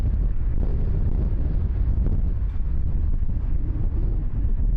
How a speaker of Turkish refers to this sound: O kadar kuvvetli rüzgar uçaklar inmeye çalışıyor kimisi de inemiyor. Şiddetli fırtına havalimanına inmeye çalışan uçakları beşik gibi salladı.